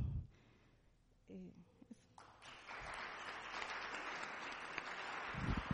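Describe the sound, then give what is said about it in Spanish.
An audience breaks into applause, a dense wash of clapping that builds after a brief pause and keeps going steadily, fairly loud, with a few voices mixed in. “Esos aplausos son para el Señor, obviamente.”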